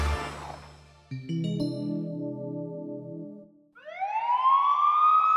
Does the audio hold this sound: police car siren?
yes